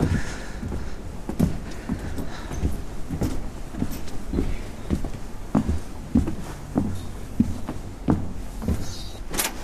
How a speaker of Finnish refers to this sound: Mi- mistä me päästään nyt siihen aulatilaan? No voidaan mennä niin siihen seuraavaan. Joo. Noustaan portaat ylös.